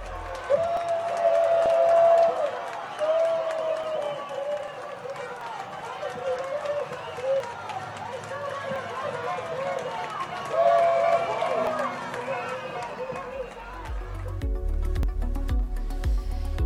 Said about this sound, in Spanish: Aquí en Leganés montamos una gran fiesta en la Plaza de España, donde pudimos compartir el momento con todos los vecinos